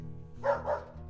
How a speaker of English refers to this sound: Um, was that a. Yep. That's a dog. And a pretty big one, too. The dog cocks its head before letting out another excited bark, clearly happy to have some company.